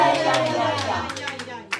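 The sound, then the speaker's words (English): A crowd claps hands together, a dense rapid patter of many overlapping claps that stays steady and fairly loud throughout, with a sharper burst near the end. “Clap and shout, fire, yeah,”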